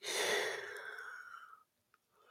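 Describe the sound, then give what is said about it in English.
A long, breathy yawn from one person, fairly loud, trailing off after about a second and a half into near silence with a faint click. “Excuse my yawning.”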